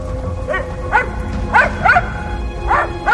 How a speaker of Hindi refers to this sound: मीरा सीधी भागती हुई अंदर अपने बेडरूम तक पहुंची जहां से पॉमी के भौंकने की आवाज आ रही थी